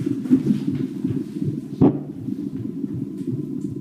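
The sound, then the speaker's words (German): A steady, rapid whooshing pulse of an unborn child's heartbeat from a CTG monitor speaker, its belt strapped around a pregnant woman's belly as she lies on a couch in a midwife's practice room, muffled and low, repeating throughout with a brief louder thump near the middle. “Auf einer Liege macht sie der Schwangeren vorsichtig einen Gurt um den Bauch für das CTG, ein Gerät, das die Herztöne des Kindes misst.”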